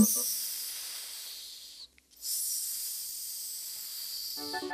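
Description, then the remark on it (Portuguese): Two long, soft, airy breaths like a sleeper's hissing exhales, quiet, separated by a short pause, with a brief voiced sound at the very end. “Na sua cama confortável e pequenina, o rato estava a dormir e a fazer um suave”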